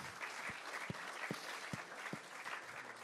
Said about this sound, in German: Ja. Da können wir auch gerne klatschen.